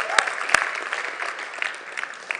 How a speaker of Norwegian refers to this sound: Klapp for dere sjøl.